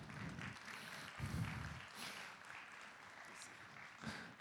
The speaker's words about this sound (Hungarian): Úgyhogy egy nagy tapsra kérem, hogy fogadják. Szeretettel Grecsó Krisztiánt!